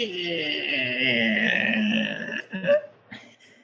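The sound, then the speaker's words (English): A drawn-out, strained vocal creak, a voice mimicking a door slowly groaning open as its handle is turned, sustained for about two and a half seconds before breaking into a few short gruff sputters. “He's gonna slowly try and turn the door handle, and it opens and”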